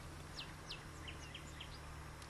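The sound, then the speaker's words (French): Small birds chirp in quick, high, downward-sweeping notes, about a dozen scattered through the moment, fairly faint over a steady low outdoor hum, with no voices, in the sunny south amid fragrant vegetation. “Ah, le sud, le soleil, la végétation qui embaume, le pépiment des oiseaux, et puis les buissons de ronces.”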